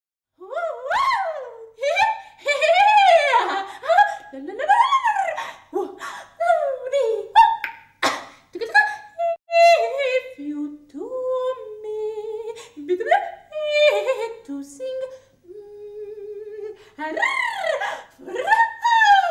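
Unaccompanied contemporary vocal performance full of extended techniques: a lone voice swoops through wild pitch glides, laugh-like bursts, sharp clicks and held tones, all lively, with no words sung.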